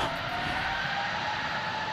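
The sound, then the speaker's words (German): Engines of an Airbus A380 wide-body airliner roar on its maiden flight from the test site in Toulouse on 27 April 2005, a high, thin whine riding over a dense, broad rumble. The sound stays constant and loud throughout, with no voices. “Alle hatten das natürlich sehnsüchtig erwartet, äh, den Jungfernflug der A380 des Großraumflugzeugs und das wurde auf dem Testgelände in Toulouse gestartet.”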